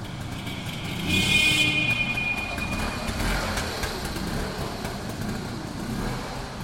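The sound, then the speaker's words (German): The engine of a small Berlin model motor scooter with 7.5 hp runs steadily, a continuous rumbling drone with a brief high whine near the start, holding an even level throughout with no voices. “Das ist ein Motorroller Berlin, er hatte 7,5 PS”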